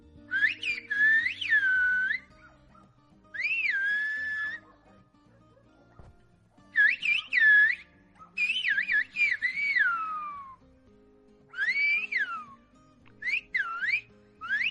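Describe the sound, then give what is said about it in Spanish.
Loud, gliding human whistles of the Silbo Gomero whistled language in bursts of rising and falling pitch, a whistled conversation, with short pauses between phrases and a low hum underneath. “De hecho, la mayor distancia a la que se puede escuchar el silbo es a casi 3 kilómetros y suena así.”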